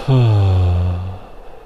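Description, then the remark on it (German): One long, deep voiced exhalation after a deep breath in during a guided breathing exercise, an audible 'haaah' sigh that starts loud, slowly falls in pitch and fades out over about a second, on its own with no speech. “Wir atmen ein und mit einem Geräusch aus.”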